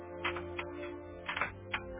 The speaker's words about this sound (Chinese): 彼得不住的敲门